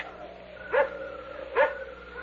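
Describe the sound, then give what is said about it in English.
A dog barks twice, the two short barks spaced under a second apart, over a steady low background hum. The dog is on the grounds of the place. “That barking dog.”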